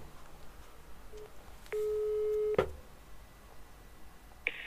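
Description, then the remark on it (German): While calling the time announcement service on a Hamburg landline number, a steady telephone line tone sounds for about a second, ends with a sharp click on the line, and after a short hiss-filled pause a brief, high electronic beep follows. No one speaks. “Ich möchte jetzt gerne die Zeitansage anrufen unter Hamburger Festnetznummern erreichbar.”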